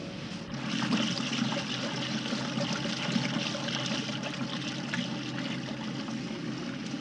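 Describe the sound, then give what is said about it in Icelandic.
Steady churning water sounds, a continuous sloshing and trickling from a woman's modern washing machine plugged in at an open hot spring washing place full of steam, moderately loud with no talking. “Og hér er einn kona með nýtísku þvottavíl.”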